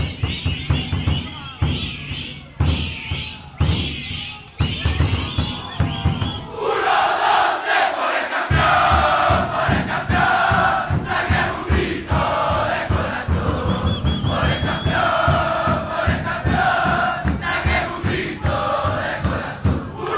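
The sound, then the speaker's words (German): A large stadium crowd of ultras of the Chilean football club Colo-Colo chants loudly and rhythmically in unison, the massed voices surging and swelling at about seven seconds into a dense, sustained roar of singing that continues throughout. “Das sind die Jungs und Mädels von Carablanca, einer Ultragruppierung von Cola Cola, einem chilenischen Fußballverein.”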